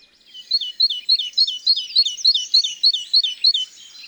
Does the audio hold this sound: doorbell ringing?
no